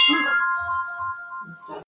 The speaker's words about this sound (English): My alarm there.